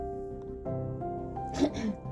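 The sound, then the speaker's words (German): A brief coughing fit: a couple of rough, breathy coughs bursting out near the end, heard over a steady humming, tonal background. “Wieder Hustenfall. Hustenfall.”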